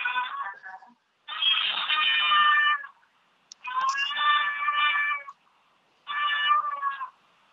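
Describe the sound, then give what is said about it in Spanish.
A cat gives several loud, drawn-out meows in a row, each call stretched long and insistent with short pauses between, a demanding call for attention. “Así se comunican los gatos”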